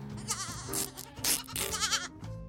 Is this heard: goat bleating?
yes